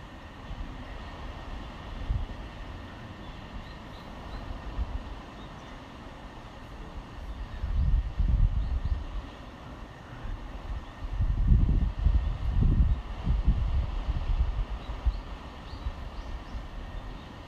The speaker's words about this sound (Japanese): もう海の音が綺麗でいい読書時間になりました海の音はこんな感じです